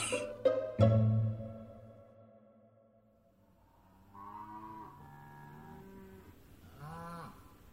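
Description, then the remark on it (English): Cows low in distress at night by a remote ranch house, a sharp attack near the start fading away, then several drawn-out, wavering moos rising and falling over the next few seconds, loud. “The distressed lowing of cows sliced through the night's silence and sent cold hands clawing up Wande's spine.”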